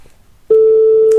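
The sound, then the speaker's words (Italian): After a brief quiet moment, a loud, steady single-pitched tone starts and holds to the end: the ringing tone heard on an outgoing phone call, clear. “sì, sta squillando.”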